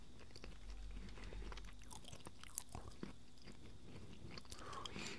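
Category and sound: food or drink, chewing edamame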